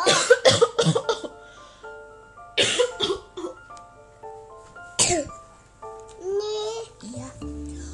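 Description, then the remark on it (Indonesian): A quick burst of three or four loud coughs, followed by a few more scattered coughs, from breathing air polluted by smoke, with gentle tonal music playing underneath throughout. “Oh, oh, kenapa aku tak bisa berhenti batuk?”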